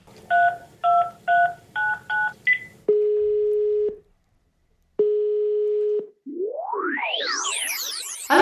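A quick run of six dual-tone keypad beeps as a phone number is dialed to call the Volkssternwarte München, followed by two long ringback tones and then a rising, warbling electronic sweep.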